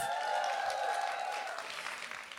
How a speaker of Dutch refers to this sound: Goedenavond allemaal, nogmaals. En nou, hele fijne Internationale Vrouwendag. Applaus alvast voor jezelf!